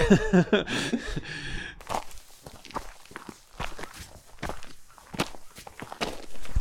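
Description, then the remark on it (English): Footsteps crunch along a hiking trail up a mountain in a steady walking rhythm, fairly clear, following a brief vocal sound at the start. “How are you doing on this hike?”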